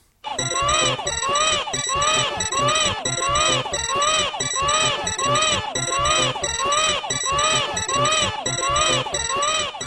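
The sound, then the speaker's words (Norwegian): Baby Mario crying in the video game Super Mario World 2: Yoshi's Island after Yoshi loses him, a loud, high-pitched wailing that warbles up and down and repeats in a steady, looping rhythm over the whole clip. “Hvis man, hvis man har spilt det spillet, så veit man nøyaktig hva jeg mener når det det barne, barneskriket eh, eh, eh, Når det holder på, når, når Yoshi eh, mister baby Mario mm.”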